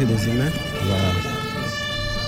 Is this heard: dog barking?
no